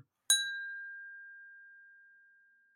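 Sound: glasses clinking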